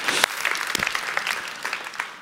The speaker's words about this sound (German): Super, danke. Das ist ein Applaus